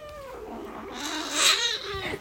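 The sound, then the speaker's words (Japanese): A cat gives a drawn-out, wavering meow that bends up and down in pitch, growing louder midway and then tapering off, with no one talking. “こんな感じでもうやめてって言うんですよね”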